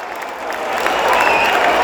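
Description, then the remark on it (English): A large stadium crowd at a cricket match erupts in sustained cheering and applause as India loses its sixth wicket, a broad, loud roar that builds and swells across the whole stretch. “oh, and you can hear that. India now six down.”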